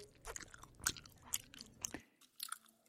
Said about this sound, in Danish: Det er lyden af tykkegummi. Og hvad har tykkegummi med plastik at gøre, tænker du? Faktisk er over halvdelen af et tyk gummi plastik.